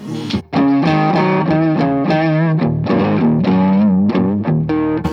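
A loud, distorted electric guitar played through an effects pedal with the press control turned up fairly high and the tone kept relatively low. Sustained notes and chords sit over a thick, saturated tone, continuing steadily for several seconds after a brief pause at the start.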